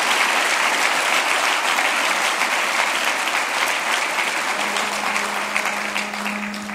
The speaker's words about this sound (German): Und ähm, die Konferenzleitung, ähm, der ich übrigens super herzlich mal Danke sagen möchte. Ihr macht eine fantastische Arbeit und eure Ganja, lasst uns mal ruhig klatschen. Applaus